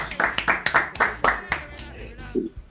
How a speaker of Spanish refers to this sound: Eh, aplauso para la gente de Lawrence.